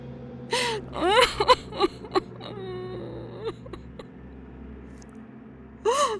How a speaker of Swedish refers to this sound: Alltså jag försöker verkligen här och du bara, du bara gråter hela tiden.